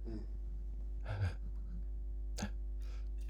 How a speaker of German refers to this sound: hat gerade Husten. Hat gehustet.